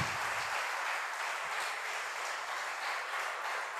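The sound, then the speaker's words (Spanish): A large church audience applauds for Jesus, a dense, steady wash of many hands clapping at once that stays full and even throughout, with no voices standing out. “Gracias Jesús, ese aplauso para él.”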